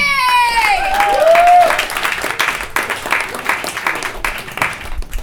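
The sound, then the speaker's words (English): An audience breaks into steady, sustained applause for a comedian, with a sharp whistle and a few cheers rising near the start before the clapping continues evenly to the end. “Give a round of applause for Brian Bixby!”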